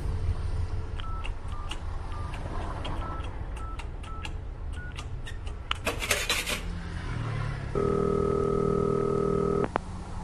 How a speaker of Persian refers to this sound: از جا بلند شد و به سمت باجه تلفن رفت سکه را داخل دستگاه انداخت و شماره گرفت